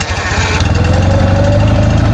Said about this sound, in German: Dann gab es da die Clique der Motorradmänner. Die fuhren mächtige, schwere und donnerkrollende BMWs.